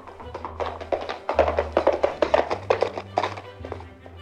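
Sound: horse hooves clip-clopping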